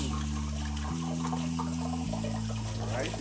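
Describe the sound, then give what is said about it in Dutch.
Cold tap water runs steadily over drained cooked beans to cool them, a continuous splashing hiss over a low droning hum in the background. “Ja, dus even koud water eroverheen.”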